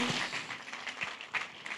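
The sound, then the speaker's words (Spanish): A crowd claps together in a dense, steady patter of many hands, fairly loud, with no voices standing out over the applause. The applause is given to the Lord. “Entonces alístese, un aplauso al Señor fuerte.”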